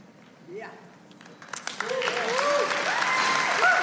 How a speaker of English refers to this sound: Okay, sorry. You didn't have to clap. Thank you for supporting me in my recovery.